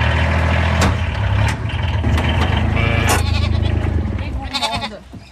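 A black-and-white Jacob sheep lamb, Marguerite, bleats several times in quavering calls while waiting for its bottle at the sheep enclosure, heard over the steady low rumble of a small truck's idling engine.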